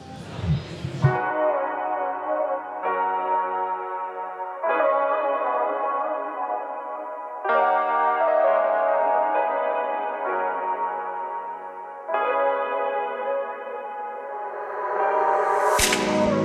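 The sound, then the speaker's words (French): Opening of a French rap track: sustained, bell-like synth chords shift in blocks every few seconds, loud and steady, ending in a bright swelling sweep. No rapping or voices are heard. “On écoute donc un de ses titres”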